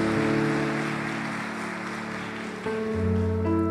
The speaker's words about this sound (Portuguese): Pode aplaudir o Senhor, porque Ele é digno.